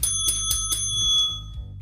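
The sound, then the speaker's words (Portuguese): A bell rings loud, struck rapidly about four times in quick succession, its bright metallic tone sustaining and then fading out. No one speaks. “o sino bateu para você.”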